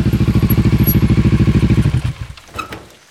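A close, loud motorcycle engine with a sidecar chugs in a steady, rapid throb, then cuts out about two-thirds of the way through, leaving a few faint clanks and rattles.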